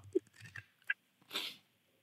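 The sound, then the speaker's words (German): Papery rustling and a few soft crisp swishes, ending in a broader brushing sweep, like pages being turned one after another; no talking. “Dann komm, blättern wir noch ein letztes Mal. Genau, so. Ich blätter noch eine Runde.”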